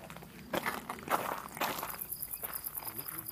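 Footsteps crunch along outdoors at a steady walking pace, with high insect or cricket chirping pulsing in the background.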